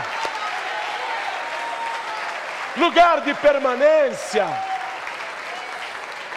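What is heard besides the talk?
audience applauding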